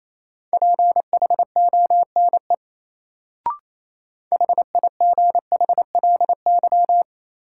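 Fast Morse code at 28 words per minute, sending a drill of common English words in a steady mid-pitched beep. Rapid dots and dashes come in two bursts separated by a brief pause with a single click, clear, with no voices.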